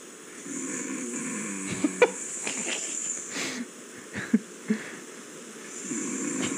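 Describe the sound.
A voice imitates snoring with raspy, wheezing inhales and snorts, fairly loud, punctuated by a few sharp clicks and a pause before the rough breathing resumes.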